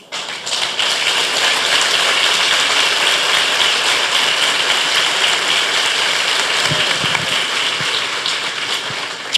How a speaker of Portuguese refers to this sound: Eu acho que vocês já sabem a minha ideia sobre esse negócio de bater palma, né? O pessoal bate palma, a turma por aí diz assim, é para Jesus. Aí eu digo assim, não, é para mim mesmo, porque Jesus está com a autoestima resolvida.